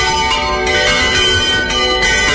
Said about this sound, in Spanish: Y empiezan a sonar las campanas